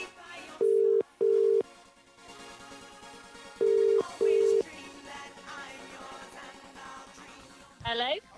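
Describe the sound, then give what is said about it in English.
A phone line rings out with two double-pulse ringback tones, a pair of steady beeps, a pause, then another pair, clear and loud over a faint background hum, with no answer, as a competition entrant is called for a chance to win a pair of VIP tickets. “Let's see if she answers the phone.”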